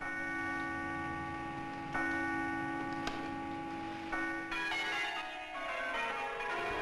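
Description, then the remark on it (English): The great bell of Bow is rung by a duke and the historic church bell peal sounds in a steady sequence of strikes, each leaving a long, shimmering hum that overlaps the next. The ringing is loud and resonant, with no voices. “The Duke rang the great bell of Bow and the historic peal sounded again.”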